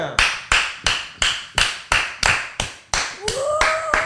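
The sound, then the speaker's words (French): A small group of hosts applauds themselves, with no audience present, clapping in a steady, even rhythm, about nine sharp claps, and a rising vocal whoop joins in at the end. “Du coup, c'est nous qu'on applaudit et ça crée quand même une sacrée. Ambiance”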